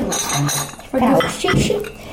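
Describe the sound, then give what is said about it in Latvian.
Ceramic coffee cups and plates clink and clatter lightly as they are set down while a hostess serves coffee in an apartment in a microdistrict of Riga, Latvia; a few bright knocks over soft background sound, with a voice murmuring faintly. “Tikpat sirsnīga ir mājas saimniece, kas uzcienā ar kafiju.”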